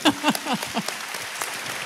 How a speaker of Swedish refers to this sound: Ja, det är väl värt en applåd.